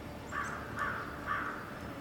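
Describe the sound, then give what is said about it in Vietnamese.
A crow flying away caws three harsh times, evenly spaced about half a second apart, over a steady low background hum, with no one talking. “con quạ bay đi mất nó vẫn không nó vẫn kêu nó bay vào màn nó bay xuyên qua màn xương và nó biến mất nó vẫn kêu mọi người vẫn thể nghe tiếng kiểu”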